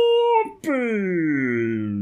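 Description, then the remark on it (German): A voice imitates a battery dying: a steady hummed tone, a brief catch, then a long, slow pitch slide downward as if winding down, fairly loud. “Und schon ist der Akku leer.”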